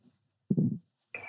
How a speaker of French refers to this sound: Il ne ressent qu'un gargouillis dans son ventre, un gargouillis qui lui rappelle qu'il a très faim, une faim de loup.